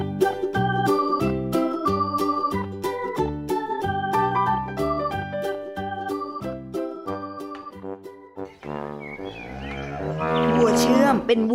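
Bright, plinking tuneful notes play in a steady rhythm, then a cow lets out a loud, drawn-out moo near the end.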